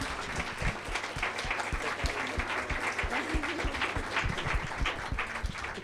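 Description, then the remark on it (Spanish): Sustained applause from an audience for the speakers who presented their project, a dense wash of many hands clapping steadily at an even level for several seconds, with no one speaking over it. “Bueno, pues eh, vamos a pedir un aplauso para los ponentes, para los compañeros que vienen a presentar su proyecto.”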